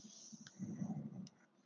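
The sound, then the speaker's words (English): A gaming PC running: a faint, steady whirring of fans, with an airy hiss over a soft low hum, continuous and unchanging, and no one speaking. “don't worry, that's just my PC.”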